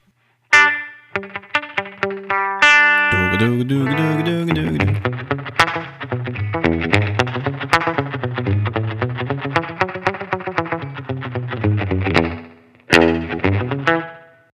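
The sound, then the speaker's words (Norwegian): A melodic instrument plays through a bright, tiled-bathroom reverb: quick plucked notes, then sustained wavering chords ringing with close, reflective echo, a brief pause, and a final burst of notes. “Tile. Så fliser. Så dette her er litt sånn baderom.”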